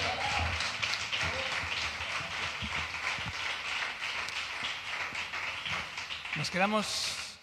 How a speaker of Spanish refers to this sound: Ahora un fuerte aplauso